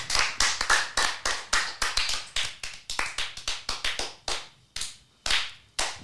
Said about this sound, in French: So, oh, merci encore pour ces applaudissements qui, comblent le vide.